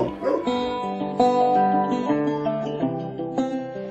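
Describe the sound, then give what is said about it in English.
A dog whines and whimpers in drawn-out, tonal cries, broken by a few short yelping barks at a steady pace, moderately loud throughout. “He really is a great dog. But he's a dog.”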